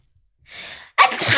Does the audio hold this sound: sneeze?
yes